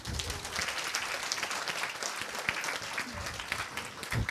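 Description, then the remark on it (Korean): A steady wash of applause from an audience, many hands clapping densely and continuously for a few seconds at moderate loudness, with no voices standing out. “뭐 박수나 쳐주세요.”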